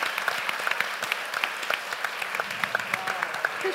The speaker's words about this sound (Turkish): Bir alkış alalım evet Ebru'ya.